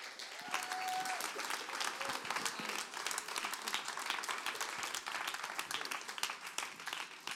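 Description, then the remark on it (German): An audience gives warm applause to honour a person who is invited to stand up, many hands making a dense, continuous crackle that holds at an even level throughout, with a brief faint tone early on and no clear talking. “Und äh, geben wir dir doch herzlichen Applaus, du darfst aufstehen und ähm, so schön bist du da.”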